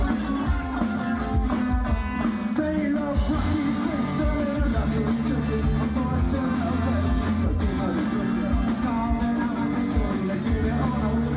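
A rock band plays live at steady, full volume, with driving drums, thick distorted guitars and a strained, shouted vocal running through without a break.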